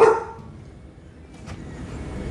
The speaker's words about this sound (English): Hold on a second. When you have a barking dog, you have to take care of it.